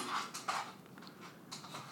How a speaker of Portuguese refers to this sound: O que, que ele tá fazendo? Pô, ele tá batendo panela de novo, velho. Na moral. Cara, no caso, ele tá andando aqui pela casa e ele parece estar tá um pouco impaciente hoje.